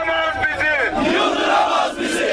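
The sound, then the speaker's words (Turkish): A crowd of about 500 workers chanting and shouting slogans together while blocking traffic on the Milas–Yatağan highway during a protest outside a power plant, many voices rising and falling in a loud, continuous roar with no single voice standing out. “Yaklaşık 500 işçi slogan atarak Milas Yatağan Karayolu'nu trafiğe kapattı.”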